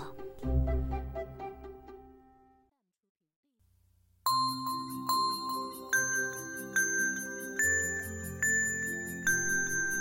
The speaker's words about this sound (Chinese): 母羊跟在他的身后，在一片清脆的铃铛声里，羊群渐渐远去了。